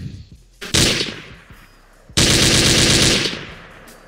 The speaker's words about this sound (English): can I get some gunshot sounds real quick? Word. Hit him with it, champ.